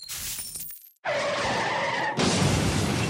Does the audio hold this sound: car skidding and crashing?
yes